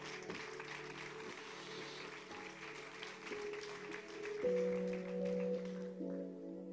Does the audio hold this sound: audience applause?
yes